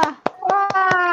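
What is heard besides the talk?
hand clapping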